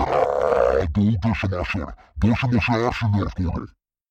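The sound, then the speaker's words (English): A voice imitates a nightmarish creature, starting with a drawn-out, harmonically rich growl, then breaking into a series of choppy, barking grunts and groans, loud. “The tubes of the vocal spout quivered as the nightmarish creature let out a long, barking sound.”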